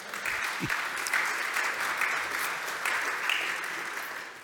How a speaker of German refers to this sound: Okay, ähm, wir haben es gestern so gehalten, wenn die Vorstellung durch ist, könnten Sie klatschen, wenn es geht, dann lösen sich die Leute.